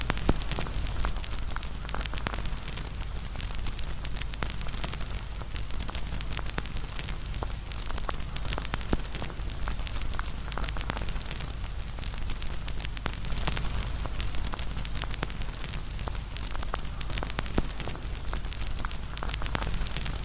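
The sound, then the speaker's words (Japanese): A campfire burns steadily, its firewood crackling and popping in irregular sharp snaps over a low, soft roar, continuous for the whole stretch with no voices. “燃える炎とパチパチ弾ける焚き木の音に耳を傾けながら”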